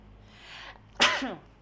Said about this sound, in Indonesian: Hmm, maaf guys, bersin guys.